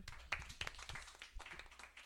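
An audience applauding: a dense patter of many hands clapping at once, bright and steady throughout, with a few sharper individual claps standing out.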